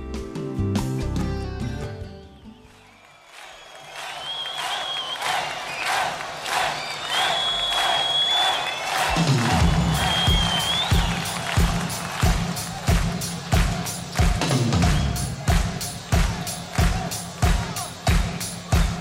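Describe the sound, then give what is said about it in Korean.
A large crowd cheers and claps loudly on the radio show Kim Hyun-chul's Golden Disk, then settles into steady, rhythmic clapping in time with a beat, strong regular claps continuing to the end. “자, 또 어찌어찌 일주일을 버티고 금요일을 맞이한 우리의 땀과 수고의 박수를 보내면서 김현철의 골든 디스크입니다.”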